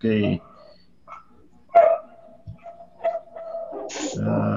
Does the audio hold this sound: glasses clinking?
no